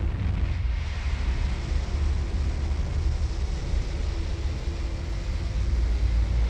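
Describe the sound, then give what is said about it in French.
A deep, continuous roar of a large transit spaceship taking off from the Materwan Centrum spaceport, heavy low rumble with a broad hissing wash above it, holding steady and loud throughout with no pauses, heard from a distance. “on voyait au loin un gros vaisseau de transit décoller du spatioport”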